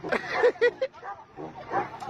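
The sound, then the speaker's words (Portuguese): A dog lets out three quick, sharp barks in a row, fairly loud, barking off-beat while a man plays the baritone, followed by softer, muffled background sound. “meme do cachorro musical. Cachorro só no contratempo, ó.”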